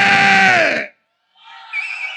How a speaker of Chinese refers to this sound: 接下来，所有跟我一样支持我们的好兄弟 欢迎走，进 支持 夜未央 微微 直播间 的尖叫声，有没？